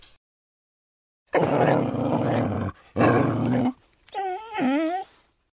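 A dog growls in two low, rumbling bursts, briefly on alert at someone moving in the stairwell, then lets out a short whining, moaning tone that wavers in pitch before fading out.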